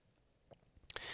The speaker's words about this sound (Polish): E, mikrofon ma mm, swoje szumy. Posłuchajmy ich teraz.